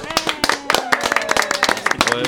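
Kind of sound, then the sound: crowd, studio audience applauding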